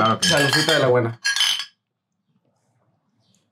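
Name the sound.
glasses clinking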